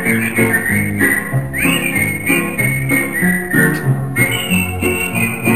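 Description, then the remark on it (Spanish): A whistled melody rides high over a full musical backing, the bright tone sliding between sustained notes in a steady, tuneful line with no voices speaking. “Los arreglos de silbido.”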